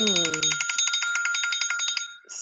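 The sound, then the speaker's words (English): A bright, trilling phone alert chime, an hourly vibe-check reminder that goes off every hour, rings steadily for about two seconds, a rapid bell-like warble that stops abruptly. A voice talks briefly as it begins. “So, with that, that's a vibe check excuse me, on my phone, where's your vibe? Every hour goes off.”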